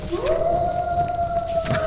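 A single long wolf howl that rises at the start, then holds one steady, clear pitch for nearly two seconds. It is fairly loud, with no talking.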